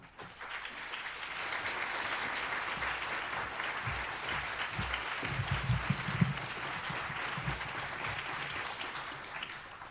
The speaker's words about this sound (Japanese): それでは早速ながら吉本高明先生をご紹介いたします。どうぞ皆様拍手でお迎えください。